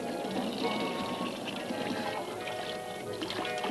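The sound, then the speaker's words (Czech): Natural hot mineral spring water in Karlovy Vary pours and splashes continuously at a fairly even level, a full, steady rush of liquid with no pauses, and faint murmuring in the background. “Ale tady, tady jsou nemocní u samého zdroje u skutečných živých pramenů přírodní horké minerální vody.”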